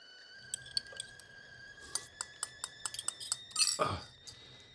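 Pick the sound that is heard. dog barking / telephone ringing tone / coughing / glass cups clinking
glass cups clinking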